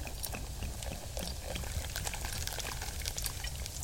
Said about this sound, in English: Fresh bubbling mineral water from the mountain spring.